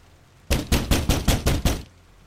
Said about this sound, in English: One blistering night, there was a storm. The family heard a knock at the door.